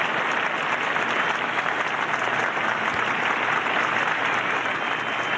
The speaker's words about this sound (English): All right, so he's done with the speech. And as the applause start to die down, Walter Cronkite comes on with his commentary.